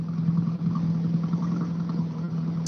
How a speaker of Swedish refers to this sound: Eh, de första klassiska bilarna börjar rulla in där ute så att vi, vi sufflerar här allt eftersom eh, bilarna ges ut ifrån Boxholm.